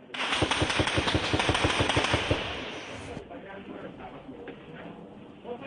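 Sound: gunfire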